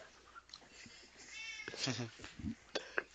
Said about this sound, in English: Meow.